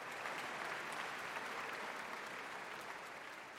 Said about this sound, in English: So I think that moment of the applause at the end was just pure joy and gratitude. I remember that feeling so, so strongly.